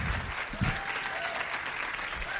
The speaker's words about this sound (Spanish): Así que regálense un fuerte aplauso primero porque están aquí temprano y porque sé que cumplieron alguna condición para estar acá.